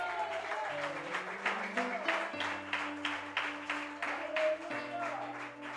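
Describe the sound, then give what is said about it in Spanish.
An audience claps loudly together in praise of God at an evening service, in a steady rhythmic beat, about two to three claps per second, over music with sustained low bass and keyboard notes. “¿Cuántos alaban a Dios esta noche con fuertes palmas?”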